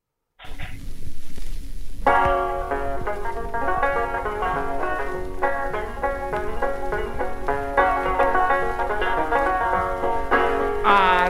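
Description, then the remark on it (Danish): A scratchy, hiss-laden 1924 old-time song recording about cooking plays steadily after a brief noisy start, its thin, tinny tones rising and falling through a lively melody. “Vi skal også lige nå at høre en lille bid fra den.”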